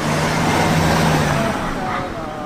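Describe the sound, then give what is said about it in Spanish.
A car goes by on a street at a zebra crossing, its steady engine rumble and broad road noise loud before easing off slightly near the end. “Le dicen, no, no cruzas todavía, que viene un coche.”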